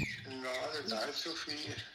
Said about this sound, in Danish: På en lidt skrattende telefonforbindelse ned fra kælderen, hvor man kan høre hans fugle pippe i baggrunden.